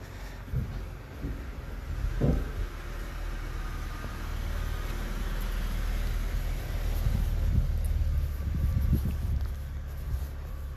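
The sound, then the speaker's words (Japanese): Steady low rumble of traffic passing on a road, with a few brief thuds and swells as vehicles go by, continuous throughout with no voices. “この音は全然車の音だな残念だ”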